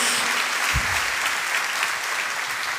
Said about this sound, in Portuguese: Pode celebrar, dar uma salva de palmas ao Senhor.